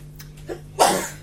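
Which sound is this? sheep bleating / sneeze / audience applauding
sneeze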